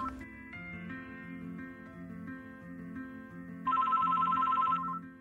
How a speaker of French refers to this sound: Ce jour-là, le bureau était calme. J'écrivais mes derniers papiers quand soudain mon téléphone a sonné.